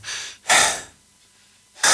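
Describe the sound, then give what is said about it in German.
A voice imitates deep, heavy breathing: a softer breath, then a loud, rushing one, a quiet pause, and another strong breath starting at the end. “So, so tiefes mhm. Atmen, dann guckst du aus, aus dem Dings und siehst, wie sie da oben steht.”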